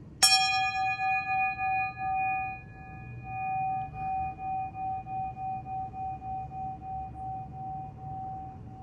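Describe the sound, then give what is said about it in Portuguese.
A small bell is struck once and its clear, high ringing tone sustains and slowly fades over several seconds, with steady harmonic overtones and a soft pulsing shimmer, heard alone without talk. “Mas antes, vamos ao nosso sininho.”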